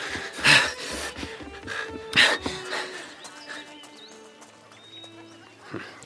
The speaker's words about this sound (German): Die sind wie von der Tarantel gestochen an mir vorbei zu der Koppel da gerannt. Was ist denn da los? Komisch. Verstehst du die Aufregung? Tja, das eine Pferd versucht, das andere zu besteigen. Vielleicht soll das nicht so sein.